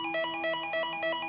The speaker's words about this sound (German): als es plötzlich an der Haustür klingelt.